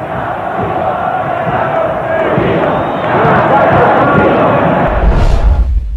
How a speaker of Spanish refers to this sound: Ya están aprestando los micrófonos, faltan solamente instantes para que aparezca el presidente Alfonsín. Gran fervor en la Plaza de Mayo, alegría, la larga espera está dando sus frutos. Escuchen.